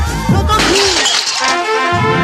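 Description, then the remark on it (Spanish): Glass shatters loudly in a home living room, broken by a child, in a Línea Directa insurance advert: a bright crash of breaking pieces followed by scattered tinkling fragments that continue for a couple of seconds. “Y cuando tu hijo pincha en el salón de tu casa, así.”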